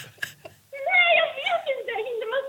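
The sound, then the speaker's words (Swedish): A person from Norrköping crying with joy after winning the Jackpot Super Deluxe prize, a high, wavering, tearful wail that starts after a brief breathy sound and trembles on for a couple of seconds, fairly loud. “fötterna på bordet och typ gråter.”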